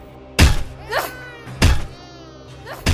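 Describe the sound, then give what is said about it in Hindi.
Heavy, dull thuds of a crying child's head being slammed repeatedly against a pillar after the child is lifted by the legs, about three blows spaced over a second apart, loud, with a brief rising wail between the first two. “ये आवाज जवन आप सुनत बानी ये आवाज हऊ बच्चा के कपार एगो खंबा पर पटक लेकर वो बच्चा के रोए के आवाज से परेशान होके”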